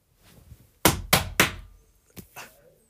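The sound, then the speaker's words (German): Three sharp hammer blows land in quick succession on a wall of a house as holes are made in it, followed by two softer knocks, with no drill whine. “die Löcher in die Wand bohren”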